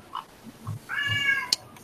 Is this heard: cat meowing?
yes